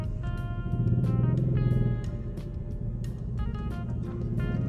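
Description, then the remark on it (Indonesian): Steady street traffic on a slightly jammed road: a continuous low engine rumble from idling and creeping vehicles, with occasional brief noisy bursts of motors passing. “kita sambil jalan sambil ngobrol enak gue sebenarnya kayak gini gini enak juga sih buat ngisi apa ya kegiatan ya waktu luang tebal jalan sedikit macet”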